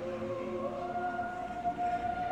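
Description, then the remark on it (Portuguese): A police car siren sounds as a steady, sustained tone, its pitch creeping slightly upward, as a police car passes with its emergency lights on, heard over a low rumbling background with no one talking. “Uma viatura da polícia passa com o giroflex ligado.”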